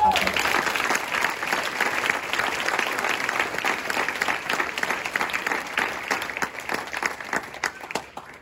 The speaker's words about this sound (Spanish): Dale un fuerte aplauso,